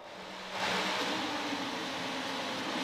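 A 2021 Formula 1 car engine roars with a deep, raspy tone, swelling after a brief low hum and then holding a steady, dense drone, with no voices.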